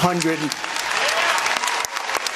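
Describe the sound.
An audience at a debate breaks into steady, dense applause, with Cruz among those clapping, many hands clapping at once, and a voice briefly audible at the very start before the clapping takes over.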